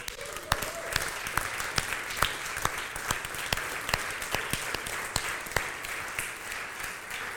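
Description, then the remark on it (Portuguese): A crowd applauds steadily for several seconds, a dense wash of many hands clapping at once, with a few sharper individual claps standing out at irregular moments. “Ai, merece uma salva de palmas, sim ou não?”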